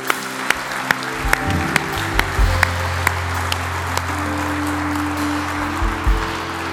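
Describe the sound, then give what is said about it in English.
A large church audience applauds steadily, celebrating after a prayer at Belmont church, with a few sharp individual claps standing out, while sustained low keyboard chords hum underneath. “Church, come, can we celebrate this?”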